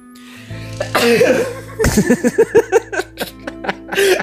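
A sharp sneeze bursts out after a short wind-up breath, followed by a string of quick, breathy huffs and sniffs that trail off before one last loud exhale.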